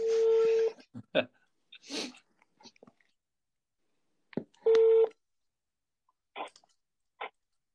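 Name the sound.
telephone busy tone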